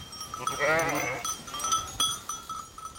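A single sheep, kept at a university to graze the grass, bleats loudly, a wavering, quavering call lasting under a second, followed by quieter outdoor ambience with faint knocks and a steady high hum.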